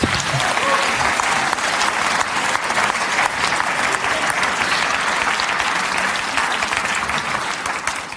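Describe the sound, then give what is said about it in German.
Sustained audience applause, a dense, steady clatter of many hands clapping at an even loudness for several seconds, tapering only slightly at the end, with no voices standing out. “In der Konf ja genau, Applaus.”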